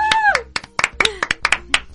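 Brief, uneven clapping from a small group, sharp claps landing irregularly for about two seconds while voices carry on over them.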